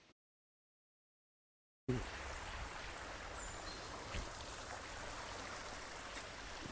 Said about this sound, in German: Ah ja. Es liegt wahrscheinlich an dem Bach da, der da fließt.